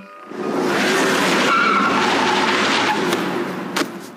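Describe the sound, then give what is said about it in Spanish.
A car's tires skid loudly across pavement in one sustained screech lasting several seconds as the car hits two seven-year-old girls crossing a street, ending with a brief sharp sound near the end. No voices. “Las atropelló un auto.”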